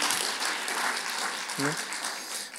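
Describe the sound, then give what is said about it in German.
Steady audience applause in a church for the pastor, a dense wash of many hands clapping at a constant level, with a short voiced shout breaking through briefly near the middle. “komm on, Applaus, ja. Applaus für euren Pastor.”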